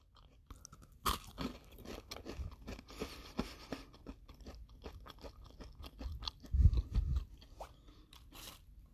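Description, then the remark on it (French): Crisp crunching of a piece of galette (a biscuit) being bitten and chewed, with repeated sharp crackles and a steady chewing rhythm over several seconds, no talking. “Tu parles d'une galette et eh, j'aurais aimé ça y goûter hier.”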